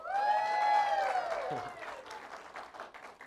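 An audience breaks into steady applause, with a few high, sustained cheers or whoops riding over the clapping at the start before the crowd noise settles into a fainter patter.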